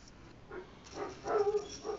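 A dog whimpers and lets out a few short, high yelping barks, several quick bursts over two seconds, fairly quiet, heard through open windows and doors in hot weather, with no one talking.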